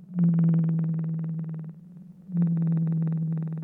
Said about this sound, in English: That's the call of a blue whale sped up 10 times. They make sounds to communicate with each other and search for food.